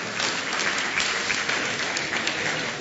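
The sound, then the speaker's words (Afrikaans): An audience claps steadily for a man turning 70 on his birthday, a dense, continuous wash of many hands that holds at an even loudness for a few seconds with no voices over it. “Geef hom 'n lekker hande klap.”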